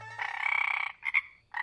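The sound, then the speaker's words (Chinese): A small frog with a large mouth croaks in a long, buzzing, rattling call, followed by a couple of shorter croaks after a brief pause. The calls are loud and clear, with no voices. “一只小青蛙蹦到了徐霞客的脚上。”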